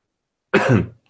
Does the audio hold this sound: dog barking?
no